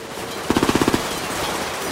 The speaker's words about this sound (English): Oh, they're, they're shooting at us! Get down!